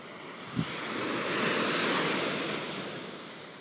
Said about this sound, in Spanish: El sonido de sus olas son música para tu alma.